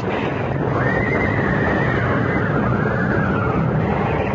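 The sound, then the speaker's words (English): A panicked lead carriage horse whinnies in a long, rising and falling cry as it comes off a bridge, pulling the carriage to the right, over a loud, dense rumble of movement and hooves, continuous throughout, with no voices. “Coming off the bridge, the lead horse panicked, pulling the whole rig to the right, so that what was coming was inevitable.”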